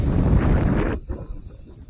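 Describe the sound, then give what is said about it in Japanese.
Strong seaside wind roars and buffets right against the microphone of someone out walking by the sea, in a loud, rumbling blast, then suddenly eases to a lower, gusty rustle for the rest of the moment. No one speaks. “なんかね、ライブ始めるとね、どうしてもね、波の音の方、あ、風の音がね、強くなっちゃうんだよね。”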